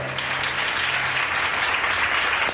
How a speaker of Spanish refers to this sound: se unen al aplauso general que celebra el intenso y emocionante momento que se ha vivido en la sala.